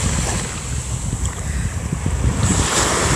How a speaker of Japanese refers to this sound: ちょっとしばらく波の音